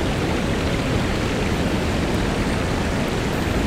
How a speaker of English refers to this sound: I'm crossing a bridge here, and I can see uh, this huge waterfall.